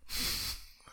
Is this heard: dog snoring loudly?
yes